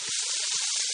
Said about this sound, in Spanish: El sonido de una hamburguesa en la sartén de una casa que ha terminado de pagar su hipoteca suena así.